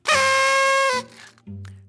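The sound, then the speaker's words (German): A loud, buzzy blast from a toy horn held for about a second, bright and harmonic-rich, followed by lower honking bursts as it is blown again. “Eine Tröte.”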